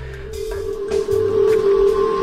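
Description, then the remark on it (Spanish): A steady, droning hum holds a single pitch near the note A, like a structure singing in the wind, with low rumbling gusts and faint whooshes swelling around it. “suele coincidir, aquí habría que tener oído absoluto o, muy buen oído para poder eh, captarlo, suele coincidir con la nota musical La.”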